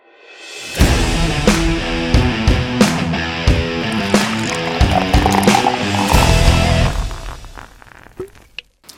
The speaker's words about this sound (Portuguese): Roda a vinheta.